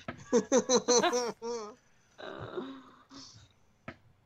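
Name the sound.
coughing and throat clearing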